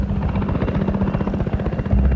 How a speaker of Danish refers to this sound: Og øh, så bliver den her tysthed, som jo ligger over en svensk forstadskvarter en tidlig morgen om vinteren, den bliver brudt af sådan to Black hawk helikopter altså militærhelikopter, der brager ind over det her forstadskvarter